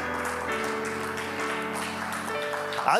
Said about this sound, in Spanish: ¿Cuántos pueden darle un aplauso a Jesús?